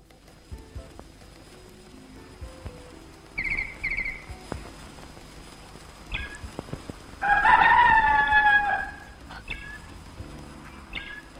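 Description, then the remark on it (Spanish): A rooster crows once, loud, a long drawn-out cock-a-doodle-doo in a 1983 cut-paper animated film by Simón Feldman, standing out against a quiet background with a few faint scattered sounds before it. “Caravaggio mató un gallo, por Simón Feldman.”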